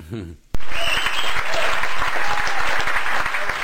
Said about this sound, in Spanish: he vuelto, he vuelto a poner los, los soniditos aquí, la tabla de sonidos. Así que aplausos anticipados para la versión de Gutenberg.